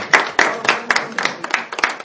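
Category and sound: crowd, audience applause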